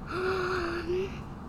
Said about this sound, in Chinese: 蝙蝠小弟清点完库存，打了一个大哈欠。